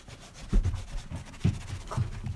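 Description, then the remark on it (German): Muffled scraping and rubbing right against a microphone, a very old Philips foam windscreen being rubbed in a few uneven strokes with low thumps around each pass. “Das war dieses Schaumstoffteil.”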